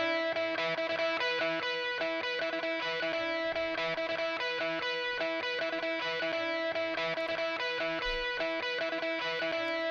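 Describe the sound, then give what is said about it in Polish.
An electric guitar plays continuously through a compressor set to its default options, with dense, slightly gritty chords held at a very even, squashed loudness for the full stretch; no one speaks. “Tym razem na przykład pokażę Wam to na gitarze. I tu już będzie na czym naprawdę pokazywać. Posłuchajmy sobie jakieś gitary.”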